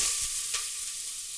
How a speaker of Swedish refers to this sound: oljan är redo att um, stekas i, så jag häller i den fint skurna löken